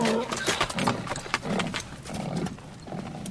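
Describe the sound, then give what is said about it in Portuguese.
Hooves clop steadily on hard ground as a donkey is led along at a walking pace, with a brief snort or whinny-like sound and no talking. “O jumento está pronto?”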